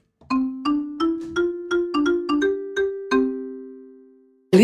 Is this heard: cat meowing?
no